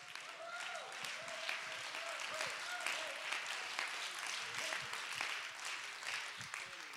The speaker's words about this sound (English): Clap your hands and give God real praise.